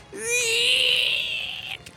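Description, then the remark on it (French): A single drawn-out, high-pitched squealing shriek made from squealing pig sounds altered into a monster's scream for a monster film, loud, holding steady for over a second before cutting off. “En fait, c'est des sons de cochon qui couinent, euh, mais trafiqués évidemment.”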